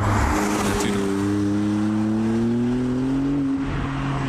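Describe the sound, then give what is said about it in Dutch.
A 3-litre V6 supercar engine rated at 630 hp revs loudly, its pitch climbing steadily for a few seconds before dropping back briefly, with no one talking. “De 3 liter V6 motor.”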